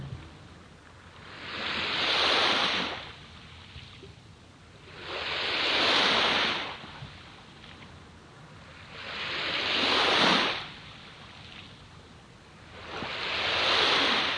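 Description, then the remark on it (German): Ocean waves break on a shore in a slow, steady rhythm, each broad surge of surf rising and washing out about every four seconds, moderately loud, with no voices. “Mit jeder Welle fließt immer mehr Schwere um meinen rechten Arm.”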